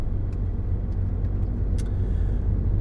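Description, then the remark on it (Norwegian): A car engine drones steadily in a high gear, a continuous low rumble filling the whole stretch with no voices, fairly loud, with faint brief ticks above it. “Oi, høyt gir. Det hørte dere jo òg.”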